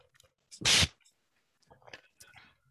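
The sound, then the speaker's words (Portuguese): A single loud slurp of someone drinking water noisily, followed by a pause and then quieter sipping and mouth sounds. “Olha, se a, tua, se a tua letra for tão bonita como o barulho que fazes a beber água e não sei o quê.”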